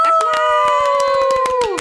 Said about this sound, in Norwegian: en liten runde med applaus.